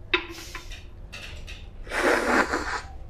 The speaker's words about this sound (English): you need to slurp this as loud as you can. I'll show you how. I'll do it. I'll do a little demo. I've done better before.